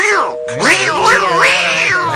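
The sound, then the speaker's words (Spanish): A cat meows repeatedly, drawn-out wavering yowls rising and falling in pitch, loud and continuous for about two seconds with no talking. “La gata, tú sabes aquí produciendo. Estate quieta, no produzcas nada.”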